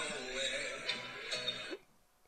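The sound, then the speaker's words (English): The speaker's mobile phone alert sounds, a bright electronic tone lasting just under two seconds before cutting off abruptly into near silence. “Oh, that was my phone.”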